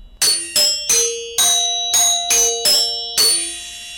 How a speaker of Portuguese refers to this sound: Não faltam o gongo para o sinal horário